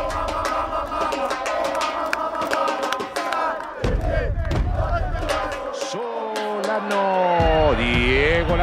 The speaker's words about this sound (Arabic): هكذا بالهتافات والعبرات القت الجماهير نظره الوداع الاخيره على معشوقها الاسطوره دييغو ارماندو مارادونا النجم الارجنتيني